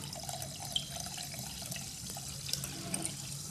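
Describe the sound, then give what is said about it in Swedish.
A drink pours steadily from a freshly opened bottle into a glass, a continuous splashing gurgle with a few small clinks and drips, lasting a few seconds with no talking. “Så det blir att hälla upp nu.”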